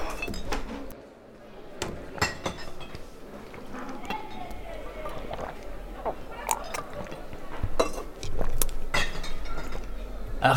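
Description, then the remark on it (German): Someone gulps still water hurriedly from a glass, with a quick run of swallows and occasional clinks of the glass, over a busy background with faint voices. “du, du musst viel langsamer trinken und zwischendurch langsam ein- und ausatmen.”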